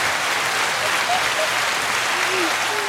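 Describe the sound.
Steady, dense applause from a crowd, many hands clapping continuously at an even loudness for the whole stretch, with faint voices murmuring underneath.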